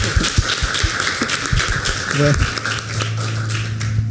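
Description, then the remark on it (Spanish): An audience at a Christian gathering applauds the Lord steadily, a dense wash of many hands clapping that fills the whole stretch, with a brief voice surfacing faintly beneath the noise. “Eh, ¿Por qué no le damos un fuerte aplauso al Señor? Yo veo ahí que quieren aplaudir.”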